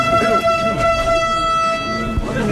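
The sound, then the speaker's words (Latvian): A new electric train's horn blares in one long, steady, unbroken tone from start to finish, loud, over a low rumble and faint background voices, as the train, full of passengers, departs Riga for Dubulti in Latvia. “Jaunais elektrovilciens pusotru gadu pēc tam, kad to atveda uz Latviju, šodien pilns ar pasažieriem no Rīgas dodas uz dubultiem.”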